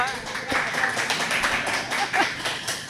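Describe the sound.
An audience applauds a guest, a dense, steady patter of many hands clapping that keeps up for about three seconds, with a few voices mixed in underneath.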